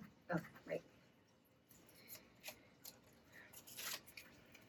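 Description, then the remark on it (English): Tarot cards being shuffled: a quiet run of soft, papery riffles and slaps spread over a few seconds, following a couple of brief vocal sounds at the start. “oh, it's your turn to shuffle.”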